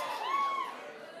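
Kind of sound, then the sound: crowd, audience booing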